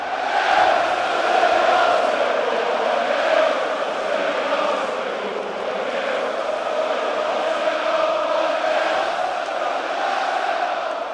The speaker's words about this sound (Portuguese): Impressionante o barulho e a alegria da torcida do Arsenal. E agora eles gritam: One nil to the Arsenal, 1 a 0 para o Arsenal.